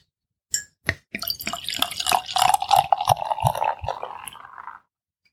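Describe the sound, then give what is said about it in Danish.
Hobby Wild Ale, a sour barrel-aged beer, glugs from a bottle into a glass, starting with a couple of sharp clinks, then a steady gurgling pour with fizzing foam building, fairly loud, with no talking. “Både noget, der skummer i glasset og knaser lidt, og så en flaske, der klukker lidt.”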